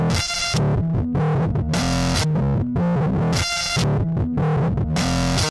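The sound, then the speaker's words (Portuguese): The second repeat of a song's chorus plays with small added distortion effects, noises and interferences: buzzy, gritty bursts of noise flare across the high range in repeating blocks over a steady, pulsing bass line, with no voices. “Aí na segunda vez que ela em seguida já repete o refrão, não tem nada entre a primeira vez do refrão e a segunda vez do refrão, a não ser pequenas distorções que ela acrescenta na música.”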